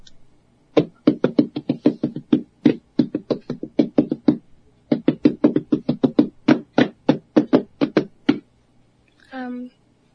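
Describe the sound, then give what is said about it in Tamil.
Parai frame drum played in a fast, driving rhythm of sharp, loud strikes, two long phrases separated by a brief pause, followed by a short voice at the very end. “ரொம்ப அருமையா இருந்தது உங்களுடைய தாளம் எது கேட்கும் பொழுதும் கூட இப்பவே எங்களுக்கும் உண்மையிலே ஆவல் வருது இந்த மாதிரி ஒரு பறை இசையை நாம கற்றுக்கொள்ள வேண்டும் என்பது மகிழ்ச்சி”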